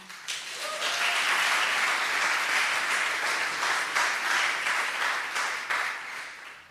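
A crowd applauds steadily for several seconds to welcome two assistants joining a speaker for a demonstration, a dense wash of many hands clapping at an even, fairly loud level before tapering off at the end.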